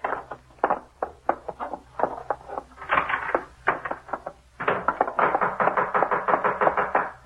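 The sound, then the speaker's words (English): Rapid, heavy pounding on a door, a long run of loud knocks that pauses briefly, then resumes even faster and more insistently. “Now, what are you trying to do? Break the door down?”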